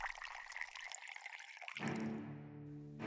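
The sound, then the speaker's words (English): Wine pours steadily into an empty glass from a shaking hand, a bright splashing trickle that deepens into a ringing, rising tone as the glass fills, with no voices. “held out his empty glass. Felix's hand was shaking as he poured.”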